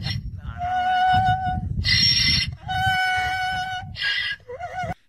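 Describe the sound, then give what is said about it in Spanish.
A female donkey brays loudly, a rough, rhythmic hee-haw that alternates between strained high wheezes and lower honking tones for about five seconds, with no one talking. “Le preguntaba, yo fui a Irlanda y le pregunté a la burra cuándo fue la primera vez que hizo este ruido.”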